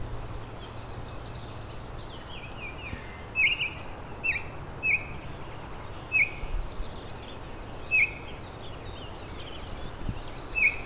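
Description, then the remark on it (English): Clear, whistled Baltimore Oriole song phrases ring out every second or two, over a steady chorus of fainter, high chirping birds in the background. “A diversity of uh, Baltimore Orioles songs here today.”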